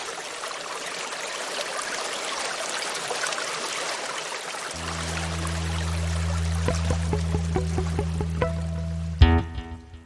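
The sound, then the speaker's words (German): A steady rush of flowing water, like a stream, fills the scene; about halfway through a deep sustained hum and a series of soft plucked notes join over it, with no voices. “bevor es losgeht, schließt noch einmal die Augen und lasst eure Gedanken mit dem Wasser treiben.”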